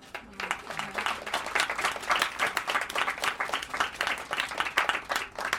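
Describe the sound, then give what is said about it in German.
An audience applauds steadily at an evening event organized by Radio Nordpol, many hands clapping in a dense, crackling wash that holds at an even level for several seconds, with no speech over it. “Dafür haben wir einen Applaus verdient.”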